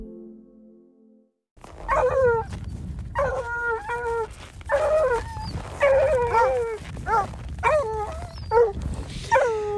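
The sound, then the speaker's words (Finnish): Several Bernese hounds, a variety of Swiss hound, howl and whimper together, a chorus of rising, wavering cries repeating in bursts over a low rumbling background, after a brief quiet opening. “Nämä on Perrin ajokoiria ja ne kuuluu Sveitsin ajokoiriin.”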